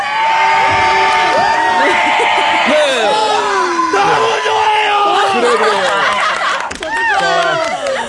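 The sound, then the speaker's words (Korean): A large crowd of fans, many of them men, gathered outside a garden studio on a hot day cheers and whoops continuously for several seconds, a loud dense roar of many voices with rising shouts and yells layered throughout. “다시 한번 저 환호 한 번 해주세요. 환호.”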